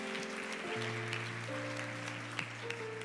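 An audience claps steadily for about three seconds, a dense crackling wash of applause at an even level, with sustained musical tones holding underneath.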